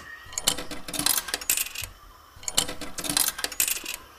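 Two tokens clatter into a coin slot to open an elevator door, in two bursts: a quick run of bright metallic clinks and jingles, a pause, then another rattling cascade. No voices.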